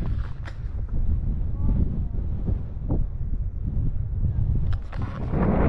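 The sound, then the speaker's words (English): Strong wind on a mountain summit buffets the microphone in a continuous low roar, with gusty swells and sharp crackling bursts, loud throughout. “very windy up here.”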